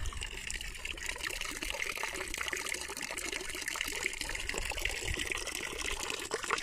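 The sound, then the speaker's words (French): Water trickles steadily in a fountain with thousands of baby clovers floating on the water, a continuous bubbling, splashing wash spread across high and low pitches at an even, moderate loudness with no voices. “Une fontaine avec des milliers de bébés trèfles qui flottent sur l'eau.”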